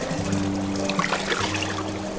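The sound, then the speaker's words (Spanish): Water pours steadily into a bathtub for a bath, a continuous splashing rush with a low hum underneath, fairly loud with no talking. “este baño no lo olvidará nunca. El agua está increíble.”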